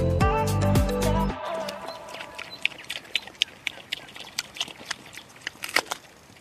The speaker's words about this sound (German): Das hier sind glückliche Schweine. Wir hören, wie sie gerade Äpfel fressen auf der Wiese, auf der sie leben.